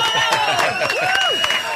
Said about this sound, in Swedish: Han får en applåd av oss.